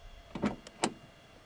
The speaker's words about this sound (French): une somptueuse limousine se gare au pied de l'avion. Le chauffeur, un bélier en livrée, vient aussitôt ouvrir la porte arrière.